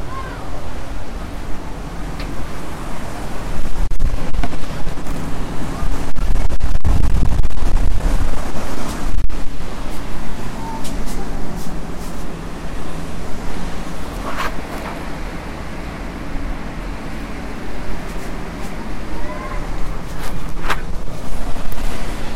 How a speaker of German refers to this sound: Ja, die Geräusche kennt er, ne? Genau. Richtig geraten. Lorette Mar, ne? Das ist das Mittelmeer.